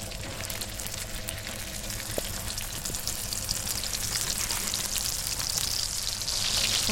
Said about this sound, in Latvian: Burgeri tiek cepti nevis uz grila, bet dzīves uguns. Tā uz ugunskura ir uzlikta panna un tiek lieta eļļa.